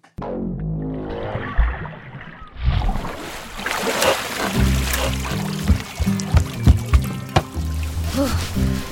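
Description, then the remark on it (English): Muffled, dull underwater rumbling for a few seconds, then a sudden break into bright splashing and sloshing as a swimmer surfaces, with uneven strokes of water continuing. “The best thing about swimming stuff in sound design is that you start under the water and then come out, which is great.”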